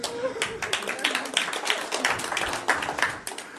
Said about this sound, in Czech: A ano, někdo chtěl zatleskat, tak můžete si zatleskat, že jste skvělí.